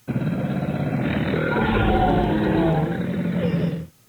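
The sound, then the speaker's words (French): A dragon roar: one long, loud, rumbling growl that holds steady for nearly four seconds, deep and gritty, alone, before cutting off abruptly. “Puis, quand il vit qu'elle n'avait rien, il cria de toutes ses forces et tout à coup un dragon surgit.”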